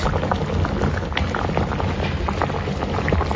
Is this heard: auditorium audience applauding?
no